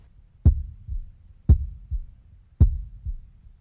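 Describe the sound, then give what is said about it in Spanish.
A loud, pounding heartbeat thumps steadily in deep double beats, lub-dub, repeating about once a second with nothing else around it. “No se ve nada. Todo está muy oscuro, pero ese latido se sigue escuchando muy intenso.”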